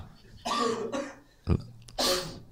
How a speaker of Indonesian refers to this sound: kok batuk